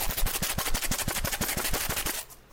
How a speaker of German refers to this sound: Hier, Ach, das Kleingeld. Das, das, klingt ein bisschen falsch. Kleingeld im Portemonnaie klingt ein bisschen falsch,